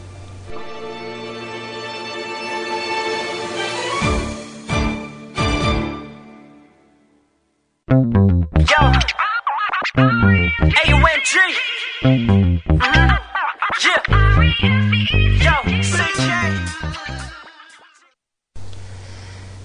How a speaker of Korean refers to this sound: 자, 오늘 여러분들과 함께 문을 열었던 음악 바로 지난주였죠. 쇼미더머니에서 음,